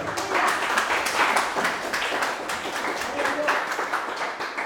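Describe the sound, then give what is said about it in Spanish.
An audience at a church service applauds for Christ steadily, a dense wash of many hands clapping at a fairly loud, even level for several seconds, with some voices mixed into the clapping. “Dámosle un aplauso a Cristo.”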